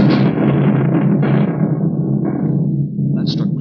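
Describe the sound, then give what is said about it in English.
A sharp crack of lightning striking the porch in a storm gives way to a loud crash of thunder that rolls on as a deep, heavy rumble, slowly losing its brightness over a few seconds. The strike sets the porch on fire. “It's fire. It struck out there on the porch.”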